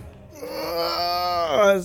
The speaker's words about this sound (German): Hinter euch hört ihr nochmal das Schreien von Arrigal.